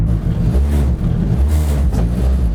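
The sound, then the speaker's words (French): A loud rally car engine starts and runs steadily, its deep rumble rising and dipping in a few quick revs over a couple of seconds, with no voices. “Et normalement ça démarre bien en vrai”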